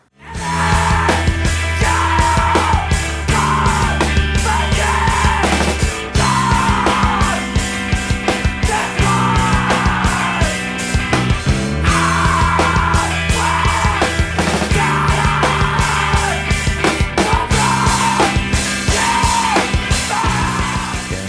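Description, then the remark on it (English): A person stands back from the microphone and screams and yells into the air at full force over loud, dense music, the raw shouting sustained almost continuously for about twenty seconds. “I love a good uh, stand back from the mic and scream into the air.”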